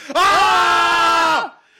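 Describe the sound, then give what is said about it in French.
After a countdown of three, two, one, several voices let out one loud, sustained scream together, held steady for more than a second before breaking off, with no words spoken. “Donc, il va falloir crier avec nous dans vos voitures, dans vos douches, dans vos thé au lait 3 2 1.”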